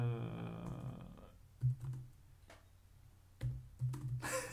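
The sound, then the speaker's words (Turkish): Sparse, irregular taps on a computer keyboard, a handful of quiet clicks spread out with pauses between them, following a steady low humming tone at the start and ending in a brief hiss. “Klavye sesi gelmiyormuş gibi.”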